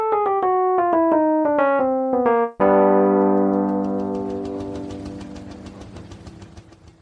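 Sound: car engine running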